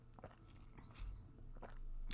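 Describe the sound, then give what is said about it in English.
Someone takes a quiet sip of Chenin Blanc white wine, with soft wet mouth clicks and a small slurp followed by a gulp, and no one speaking. “Okay, let's take another sip of it first to blame it properly.”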